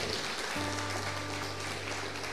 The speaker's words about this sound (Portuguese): Pode aplaudir o nome do Senhor, meu irmão.